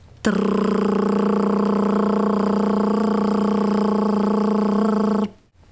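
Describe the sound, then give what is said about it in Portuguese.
A single sustained trilled "trr" made with a vibrating tongue as a vocal exercise, held steadily for about five seconds at a constant pitch and loudness, with a buzzing, rattling texture and no other talk. “Agora, sustente o som de TR sentindo a língua trepidar.”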